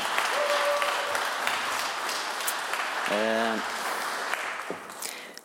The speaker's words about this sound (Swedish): Men jag vill att vi ska ge en ännu större applåd till Jesus. Kom igen. Ja.